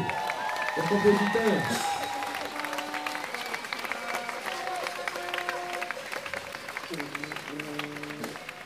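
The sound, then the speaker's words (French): Sustained audience applause at a festival, a dense patter of many hands clapping throughout, with sustained tonal notes or voices rising above it, louder at the start and then holding steady. “Je voudrais que vous applaudissiez”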